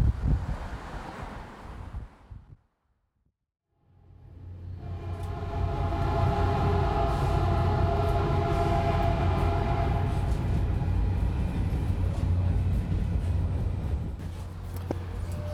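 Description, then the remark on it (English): A Caltrain commuter train, on the line running south from San Francisco toward Stanford, rumbles steadily along the rails, loud, with a low droning hum and humming tones. The noise cuts out briefly before returning. “I'm taking the Caltrain, a line that runs south from San Francisco, past the campuses of the mega tech companies”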